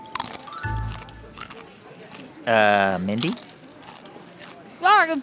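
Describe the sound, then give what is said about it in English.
Crunchy chewing of a bitter bite of raw broccoli and kale, with moist crackly bites running through, while a voice briefly speaks up partway through and again near the end. “it's just taking me a while to chew on this broccoli kale bitter bite.”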